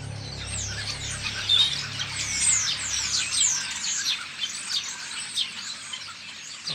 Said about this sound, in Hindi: अभी मिया मैं सोच रहा था इन सुनसान रास्तों पर अगर परिंदों की चहचहाट ना हो तो सफर कितना मुश्किल होगा